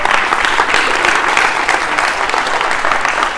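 An audience breaks into steady, loud applause, a dense wash of many hands clapping continuously without a break, with no one speaking over it.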